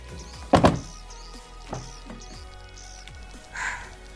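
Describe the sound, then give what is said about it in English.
A car door unlatches and thuds shut with a solid clunk near the start as people get out of the car, parked on gravel and dirt surrounded by huge trees, followed by softer handling thumps and rustling, and a brief swishing creak near the end, with no talking. “Yeah, let's get out of the car and stretch our legs.”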